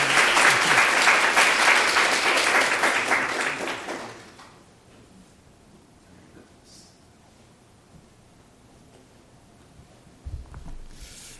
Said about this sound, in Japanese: 先生のメッセージの前に奥様、ね、少しご挨拶をお願いしたいと思いますけどもう一度拍手で、えー、お願いしたいと思います